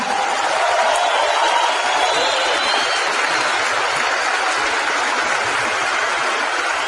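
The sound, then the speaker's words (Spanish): Sustained applause from a large audience for a couple introduced as double diamonds of Mexico, a dense, steady wash of clapping that holds at an even loudness for the whole stretch, with no one speaking over it. “Ven a darle un fuerte y merecido aplauso a nuestros soplens”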